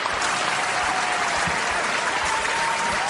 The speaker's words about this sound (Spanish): Qué lindo que te reciban con una ovación, así como si tuviéramos mucha gente, ¿no?